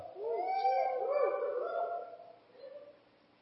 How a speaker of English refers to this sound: Somebody got a sick dog in here? Man, that sounds like my dog Charlie but he's not feeling good.